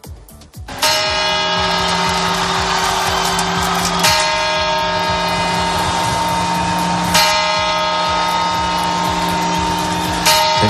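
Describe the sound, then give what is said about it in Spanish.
Loud New Year's Eve clock bell chimes ring out in a steady series, each strike landing about every three seconds with a rich, sustained metallic tone that hangs and overlaps with the next. No one speaks. “En todo caso, faltan 18 horas para que escuchemos este sonido.”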